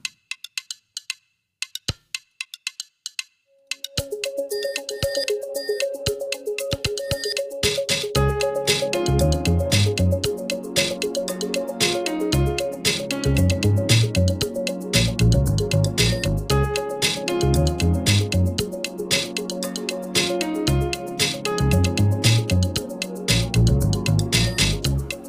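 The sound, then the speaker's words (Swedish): A few sparse clicks, then a full music track, played as a music break, kicks in at steady volume, with sustained melodic tones over a driving, rhythmic bass beat that carries on to the end. “Men vi behöver en musikpaus.”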